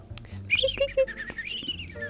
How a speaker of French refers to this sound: Un oiseau passe.